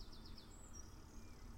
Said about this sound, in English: because it's been raining a bit, I'm doing this in a two-hour window when the rain isn't raining. Uh, unfortunately, when it rains a bit and then it stops, the birds start going ooh,